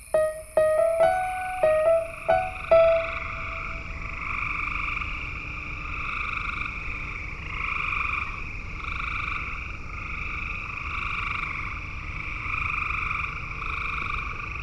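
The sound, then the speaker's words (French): A dense chorus of frogs croaking steadily in pulsing waves at nightfall in Texas, with a few sharp, louder calls at the start, all over a soft hiss of wetland ambience. “Pour une fois encore, perdus dans la nature, nous n'entendons plus que les cris des grenouilles à la tombée du jour.”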